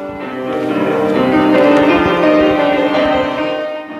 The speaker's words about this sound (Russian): Соло на рояле.